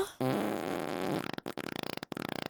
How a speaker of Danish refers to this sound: i dag skal vi snakke om, hvorfor vi prutter. Prutter har alle dage været sjove. Uanset om de kommer fra voksne eller fra børn, så er der bare noget sjovt ved dem.